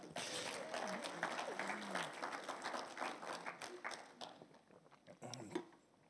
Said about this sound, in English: So I just want to thank you for that. So give yourself a clap.